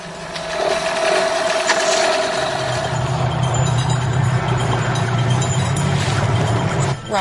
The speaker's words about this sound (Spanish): Como en una película de terror en la que el motor no arranca. ¿Ya está?